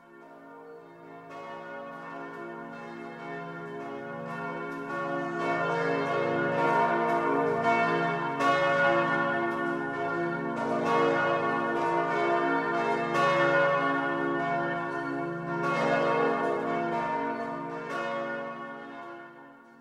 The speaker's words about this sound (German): Na, du hast recht, die Glocken haben ja noch gar nicht geläutet, Normalerweise läuten doch die Glocken, bevor es losgeht.